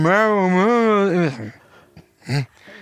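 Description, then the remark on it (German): A voice hums a sustained, wavering tone for about a second to mimic the warbly tape flutter heard on a piano at the start of a mastered recording, the pitch wobbling up and down. A brief breathy sound and a short vocal burst follow. “Und ich, ist der Flatter vom Band oder was?”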